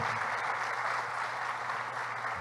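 Steady, dense applause from a crowd, many hands clapping at once in a continuous crackling wash, fairly loud and unbroken throughout, with no voices standing out.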